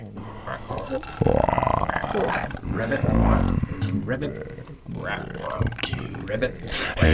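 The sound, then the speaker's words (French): A crowd of people on Radio Grenouille imitates frog croaks with their voices, a dense overlapping chorus of low, guttural, rasping calls that swells loudly and keeps going throughout. “Est-ce qu'on peut entendre quelques grenouilles”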